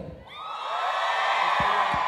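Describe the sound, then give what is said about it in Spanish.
A live crowd at a fight event, asked to shout for one of the fighters, erupts in loud, sustained shouting and cheering, a dense wall of many voices whooping together that swells after a brief lull and holds steady, energetic. “Un grito fuerte a los que le van alando?”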